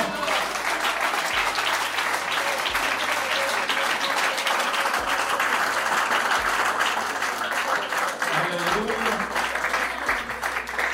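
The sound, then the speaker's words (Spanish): An audience claps loudly and steadily for the Lord, a dense, continuous wash of applause that holds its level throughout with no voices standing out above it. “Dele fuertes aplausos al Señor, hermano.”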